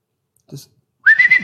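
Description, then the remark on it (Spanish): A short breathy sound, then a loud, steady, high-pitched whistle held for about half a second, a person whistling in imitation of a shepherd's call to a herding dog. No talking. “Ah, va el pastor al frente y el pastor dice, digo, chifla de otra forma, pero no me sale.”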